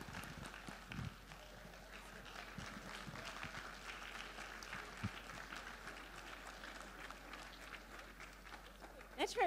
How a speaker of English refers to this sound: Let's give her a bigger round of applause.